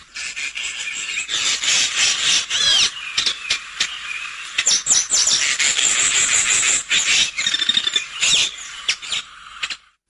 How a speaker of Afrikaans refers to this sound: Goed, kom ons luister na die eerste speler, die swartkeel geelvink.